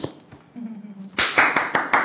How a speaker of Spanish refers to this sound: Aplauso para Jesús.